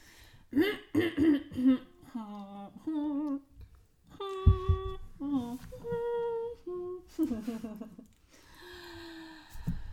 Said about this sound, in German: Meine Husterei auch.